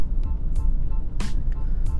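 A new car's engine rumbles steadily as the car drives away, its low drone broken by a few brief hissing bursts. No one speaks.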